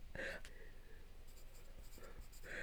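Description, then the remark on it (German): Pen scratching across paper in short strokes, with brief bursts of voices and rustling over a steady background hum. “Was, ich muss kurz schreibst, du jetzt, schreibst du jetzt Bolov auf?”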